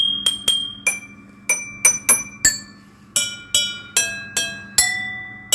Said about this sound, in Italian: per questa sigla fatta sulla vetreria di un laboratorio chimico forse legale.